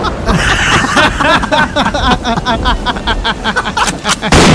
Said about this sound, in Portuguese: tá chovendo lá fora, olha o relâmpago, olha o trovão.